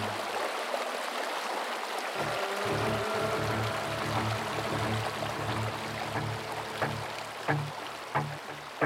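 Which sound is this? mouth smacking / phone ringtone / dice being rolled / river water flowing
river water flowing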